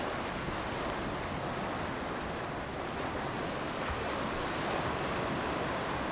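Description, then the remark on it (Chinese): Steady ocean surf washing onto the shore, a continuous broad rushing roar with gentle swells in intensity, no voices present. “海浪一波又一波的打在岸上的声音，它的每一个频率大概是好几秒”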